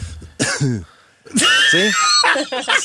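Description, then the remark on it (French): A voice imitates weak, feeble coughing: a couple of short throaty bursts, a brief pause, then a longer strained, raspy cough that trails into voiced sounds. “Tu tous pas fort? Ça, c'est un signe physique que t'es rendu.”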